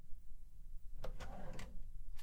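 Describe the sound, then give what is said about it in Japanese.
A drawer, the second drawer of a shelf, slides open with a few quick clicks and a soft rolling scrape, fairly quiet, over a low background hum with no talking, as someone looks for a contract. “契約書はどこだったかあそこの棚の2番目の引き出しに”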